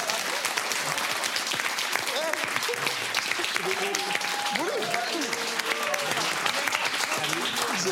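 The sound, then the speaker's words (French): Steady, dense applause from a crowd for a France national team (Les Bleus) supporter seen during the World Cup fills the whole stretch, a continuous crackle of many hands clapping, with voices audible underneath the clapping. “C'est le supporter des Bleus, on l'applaudit parce que...”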